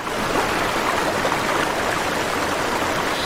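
small river stream flowing

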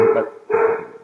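dog barking

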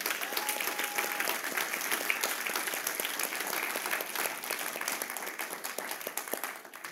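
audience applauding and cheering

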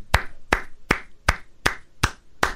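hand clapping

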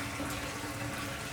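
water running

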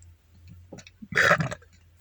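burp

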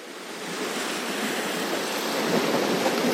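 calm ocean waves

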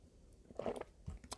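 sipping tea

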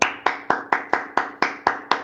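clapping

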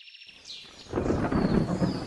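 thunderstorm with rain starting

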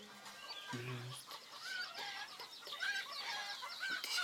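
chickens clucking

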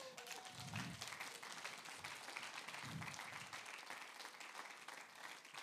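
audience applauding

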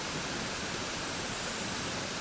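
waterfall

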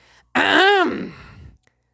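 throat clearing

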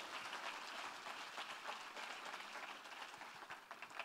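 audience applause

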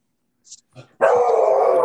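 dog barking

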